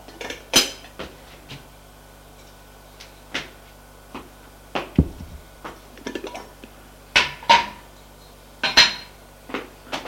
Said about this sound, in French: que le lait a bouilli, prends la casserole, la casserole et va déverser le lait dans le bol des enfants.